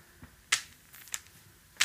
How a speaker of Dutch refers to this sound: Ik ga even meeluisteren hoe de zweep haar billetjes raakt